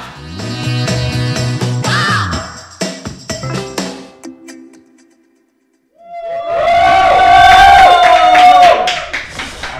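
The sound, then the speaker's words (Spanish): A loud crowd cheers and applauds, with rising whoops and shouts, after a stretch of sustained, tonal voices and a brief silence. “¿A quién le aplauden? ¿A quién le aplauden?”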